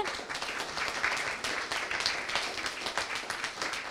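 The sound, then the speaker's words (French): A large church crowd applauds the children, the parents and the Church steadily, dense overlapping claps at a moderate level throughout, with no pauses and no clear voices above the clapping. “Est-ce qu'on peut applaudir tous ces enfants Et est-ce qu'on peut applaudir tous ces parents Et qu'on applaudisse l'Église”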